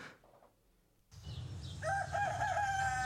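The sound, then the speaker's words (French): After a quiet second, outdoor background noise rises and a rooster lets out a single loud, drawn-out crow, clear, with no one speaking. “un très beau chant du coq, euh, devient devient riki en italien, kikiriki en allemand et coq doudredou euh, en anglais.”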